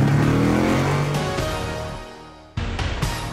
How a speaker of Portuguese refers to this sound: engata a primeira e acelera!